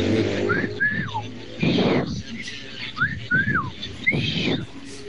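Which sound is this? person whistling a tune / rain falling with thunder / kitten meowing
person whistling a tune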